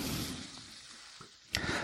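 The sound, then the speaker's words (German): Steady sizzling of tomato paste frying in a pan, a bright hiss throughout, with a brief scrape or clatter near the end. No one speaks. “Jetzt gehen wir hier unser Tomatenmark zu.”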